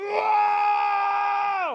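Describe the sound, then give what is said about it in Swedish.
A single voice imitates an audience cheering after a dance, holding one loud, high, steady whoop for nearly two seconds before the pitch slides down at the end. “jublet efter dansen var så här.”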